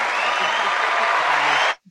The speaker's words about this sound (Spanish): Aplausos, por favor, ponele.